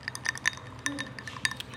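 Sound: ice cubes clinking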